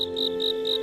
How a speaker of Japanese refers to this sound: 一年を通して四季の中にはそれぞれ私たちに深い印象を与える音があります。多くの人にとって一番夏らしい音はやはりセミの鳴き声でしょう。